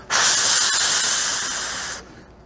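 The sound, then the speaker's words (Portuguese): A person blows air out in one steady, continuous breath for about two seconds, trying to blow without stopping, a breathy hiss that fades slightly before stopping abruptly. “Tenta soprar sem parar. Pega um balão e faz assim.”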